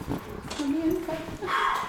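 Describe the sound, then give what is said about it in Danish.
A dog belonging to the speaker's mother makes soft, drawn-out whining noises in the background, rising in pitch over a couple of seconds, with faint room murmur underneath. “Er det din hund, der larmer i baggrunden?”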